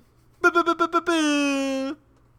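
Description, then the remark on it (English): A voice mimics a rap air horn: five quick staccato blasts followed by one long sustained honk, loud, with a bright buzzy tone and no other talking. “You could always go with the rap air horn, too.”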